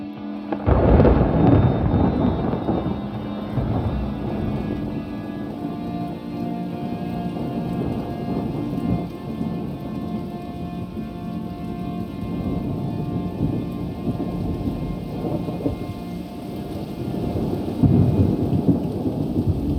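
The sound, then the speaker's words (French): A thunderstorm with deep, rolling thunder that swells loudly at the start and again near the end, over a steady wash of heavy rain, with no voices. “quand la foudre heurte le sol.”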